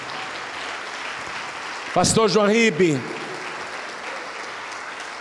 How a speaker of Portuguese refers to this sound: Vamos aplaudir mais ao nome de Jesus.